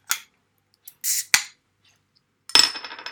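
A beer bottle is opened in front of a microphone: a few small metallic clicks and a brief hiss, then a sharp pop with a short glassy ring and a fading fizz. No voices.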